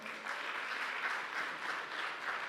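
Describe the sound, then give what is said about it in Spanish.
An audience applauds loudly, a dense, steady wash of many hands clapping with no pauses, sustained at even strength throughout. “Vamos, déle otro aplauso fuerte.”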